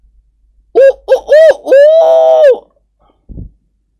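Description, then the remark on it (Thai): A man's voice mimics a rooster crowing while flapping both raised arms like wings: three short rising notes followed by one long drawn-out call, loud, then a brief soft thump. “แล้วเจ้าแห้วก็ยกแขนทั้งสองข้างขึ้นตีปีกพับๆส่งเสียงร้องขึ้นดัง”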